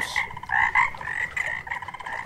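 A dense chorus of frogs croaks steadily, their rapid pulsing calls overlapping into a continuous, fairly loud throb with no voices present.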